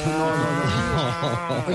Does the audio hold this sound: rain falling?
no